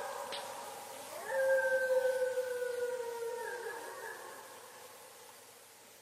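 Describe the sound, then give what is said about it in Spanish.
Several far-off howls from a pack rise and hold together in long, sustained tones, a distant chorus of canines answering one another before slowly fading out. “En la distancia puede oír la respuesta de la manada.”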